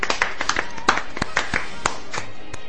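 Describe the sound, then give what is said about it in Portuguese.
Hand clapping in sharp, crisp bursts at an uneven pace for a few seconds, with a faint voice murmuring underneath. “Palmas pra ele.”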